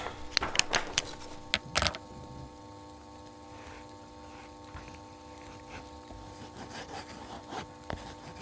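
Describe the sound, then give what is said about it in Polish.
A pen scratches across a sheet of paper as someone draws a map, in a burst of quick, sharp strokes, then continues with fainter, intermittent scribbling over a steady low background hum. No one speaks. “Dobra, dobra, jak mi pan da coś do pisania, to ja panu mapkę zrobię.”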